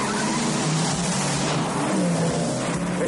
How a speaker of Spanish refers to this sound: Conducen acelerando a toda velocidad por la zona de los muelles, mientras Gino le pisa los talones.